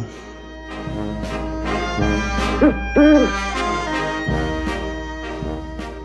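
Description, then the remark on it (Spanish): Two short owl hoots rise and fall midway through, standing out clearly over a busy musical backdrop of plucked and sustained tones with sharp percussive accents. “El canto del búho.”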